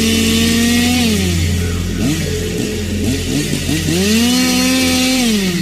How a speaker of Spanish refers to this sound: ¡No, la motosierra no!